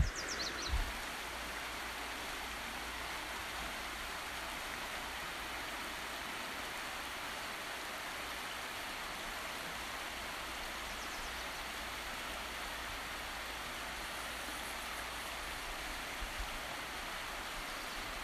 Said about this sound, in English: Here are the sounds of Bright Angel Creek and Campground.